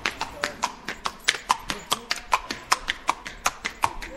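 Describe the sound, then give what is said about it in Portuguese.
Horse hooves clip-clop steadily on a hard surface in the Siq, the narrow stone gorge that leads into Petra, where tourists often arrive on horseback: a quick, even rhythm of sharp knocks, moderately loud, with no one speaking. “a rainha Rania percorre a pé o Sikh, a estreitíssima garganta de pedra, porta de entrada em Petra, por onde Indiana Jones, na ficção, e os turistas de hoje, na realidade, chegam frequentemente a cavalo.”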